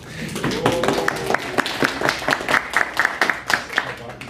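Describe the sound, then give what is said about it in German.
An audience at Witten/Herdecke University breaks into applause, a dense patter of many hands clapping at a steady, lively level, with some murmuring voices mixed in underneath. “Na, der Applaus, der zeigt schon, wir sind nicht ganz so paar wenige.”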